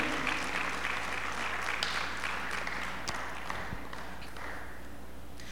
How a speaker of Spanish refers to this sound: Alguien puede aplaudir al Señor, alguien puede decir, gracias Señor, gracias por tu bendición en mi vida. Aleluya.